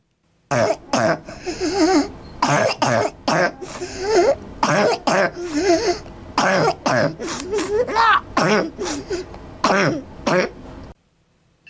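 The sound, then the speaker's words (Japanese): A child's harsh, barking croup cough comes in repeated loud bursts, with strained, wheezy breaths drawn in between the coughs and no talking; a recording, made with consent, of a real croup patient's actual symptoms, the cough often likened to a dog barking. “これあの非常に独特なよく犬の鳴き声と聞きますけど私あまりお馴染みではないんですがこれどんな音なんでしょうかそうしましたらですね、今あの、ちょうど音源が患者さんの承諾を得た、その実際の症状の音がありますので、その音をあの今流しますのでお聞きください。”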